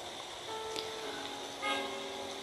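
A steady wash of vehicle traffic noise with faint horn-like tones drifting in and out, a passing vehicle swelling slightly louder near the end, no voices.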